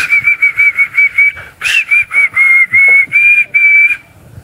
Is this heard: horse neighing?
no